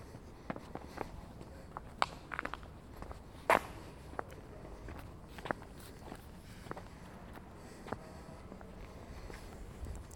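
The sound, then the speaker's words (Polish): Footsteps of a person walking down stairs on the way outside, a steady series of light thuds and scuffs with an occasional sharper knock, over a faint background hum and no talking. “Schodzę ze schodów.”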